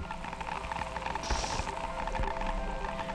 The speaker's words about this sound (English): the source of all this natural hiss and these other radio waves and other kinds of waves that we hear in the atmosphere